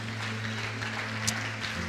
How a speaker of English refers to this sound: When I think of the goodness of Jesus, and all that He's done for me. Clap your hands and praise Him and magnify Him.